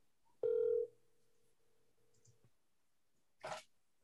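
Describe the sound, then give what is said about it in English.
A phone call placed from a phone connects with a loud electronic tone, then a steady ringback tone hums for about two seconds before cutting off, followed by a brief noisy burst. No one speaks. “should I call Jacob on the phone right now?”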